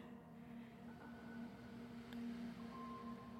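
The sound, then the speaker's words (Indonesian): A steady engine drone hums outside, swelling slightly midway as a motorcycle rolls past, its low buzzing tone holding throughout with no voices present. “Motor lewat.”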